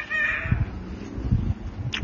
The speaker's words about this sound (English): That's my little lorikeet in the background. I call him Buddy.